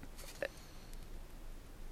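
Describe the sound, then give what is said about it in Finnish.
Faint rustling of papers being handled as a host searches for a listener comment, with a few soft crinkly bursts early on and lighter shuffling afterward in an otherwise quiet room, no voices. “hetkinen, otinko minä nyt tuota väärän kommentin tuosta, että paperit menevät ihan sekaisin.”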